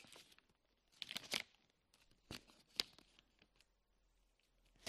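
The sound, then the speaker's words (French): A sheet of paper is crumpled, with crackly bursts of crinkling and a few sharp rustling snaps scattered over several seconds, no voices present. “Dites-moi, est-ce que la feuille, il est possible de la remettre plate comme elle était au début”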